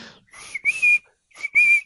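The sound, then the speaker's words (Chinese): A traffic police whistle blows shrill, high trilling blasts in two pairs, each a short toot followed by a longer sustained one, with a brief silence between the pairs, as Police Chief Bao, standing atop an old stone bridge, waves his arms to direct traffic. “他降落在古老的石桥顶上，吹起哨子，挥动手臂，开始指挥交通。”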